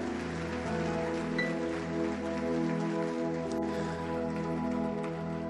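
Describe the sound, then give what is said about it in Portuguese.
A church audience applauds the Lord loudly and steadily, a dense wash of clapping that holds for several seconds over sustained keyboard chords, with no one speaking. “Aplauda ele o mais forte que você puder.”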